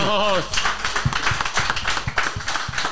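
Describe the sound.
A brief voice at the start, then an audience on a show bursts into applause for a man called up on stage: many hands clapping in a dense, steady patter that stays fairly loud to the end.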